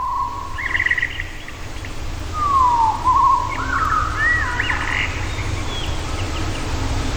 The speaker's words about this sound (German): Und da habe ich mir gedacht, na gut, Amselchen, dann machen wir dich mal ein bisschen größer und stellen äh, dich etwas langsamer. Und äh, tatsächlich, wenn man diese Amsel jetzt nimmt, auf minus 50 Prozent, wird sie natürlich erstmal etwas riesig.